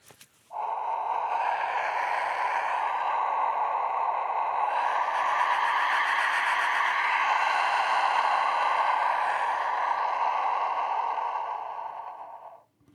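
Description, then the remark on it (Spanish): An Aztec wind whistle (ehecachichtli) blown in one long, steady breath for about twelve seconds, producing a loud, airy, rushing howl with a hoarse mid-pitched tone, like roaring wind. No voices. “es un ejecal chichitl o silbato de viento.”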